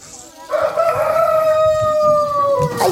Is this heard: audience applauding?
no